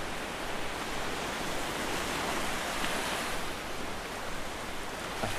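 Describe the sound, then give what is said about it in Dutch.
Waves break on a beach in a continuous roar of surf, a dense hissing wash that swells slightly but never pauses, with no voices present. “ik, ik zet het dan altijd vlak bij de branding.”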